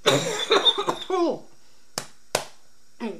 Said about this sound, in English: Again, excuse the coughing.